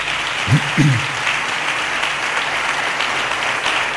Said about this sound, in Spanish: Un aplauso para Antonio.